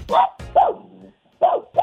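Dogs bark sharply up close, four loud yelping barks in an uneven rhythm, with a softer whimpering whine trailing after the second bark before a short pause.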